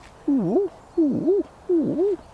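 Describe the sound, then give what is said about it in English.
A person imitates a stock dove's coo with three low, hollow coos, evenly spaced and each rising and falling in pitch. The voice is clear, with no talking in between. “Can you, can you do a stock dove?”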